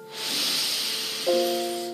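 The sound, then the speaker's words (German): A long, deep inhale drawn steadily through the nose during guided breathing, airy, lasting about two seconds over soft, sustained musical tones in the background. “Wir atmen ein.”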